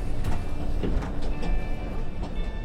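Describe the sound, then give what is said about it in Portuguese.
Inside a moving train carriage: a steady, loud low rumble with rattling and occasional sharp clacks from the rails, plus a faint whine, continuous throughout with no voices. “E esse momento foi tão legal que você resolveu sair da cabine dar uma volta pelo vagão do trem.”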